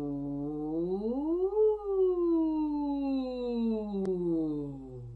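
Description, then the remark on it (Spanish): A sustained sung "oo" vowel, a long vocal siren in the middle register done as a voice warm-up, slides smoothly upward in pitch, then glides slowly back down over about five seconds, steady and moderately loud, with a single faint click near the end. “Y para los medios utilizo la U y hago unas sirenas largas.”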